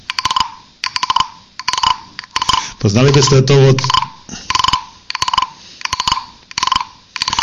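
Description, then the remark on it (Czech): A wooden frog güiro is rubbed in a steady series of about a dozen rasping, croak-like strokes, close and fairly loud, with a brief spoken phrase breaking in midway. “koupil takovouhle žábu, helejte si vám ji ukážu, takováhle žabička. Ze dřeva.”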